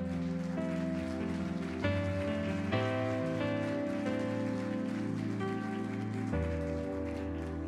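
Steady crowd applause for the Lord, a dense pattering clatter, rolls on without a break while sustained keyboard chords play underneath and shift every second or two. No one speaks.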